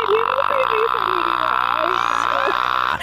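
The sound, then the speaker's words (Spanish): A voice mimics the warbling, choppy effect of speaking into a spinning electric fan, a steady whirring buzz with wavering vocal tones over about three seconds, fairly loud. “así me paraba yo en el, en el ventilador y, ¿verdad que sí se escuchaba así el abanico?”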